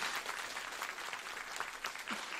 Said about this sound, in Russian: очень рады, что наконец-то до вас добрались, поэтому бурный аплодисмент всем вам, дорогие.